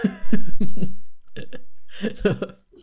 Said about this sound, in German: Ja, ah, das ähm, hat man immer noch gehört, scheiße. Ja, ein bisschen hat man schon gehört, macht ja nichts. Können Sie ruhig mal ins Mikrofon husten.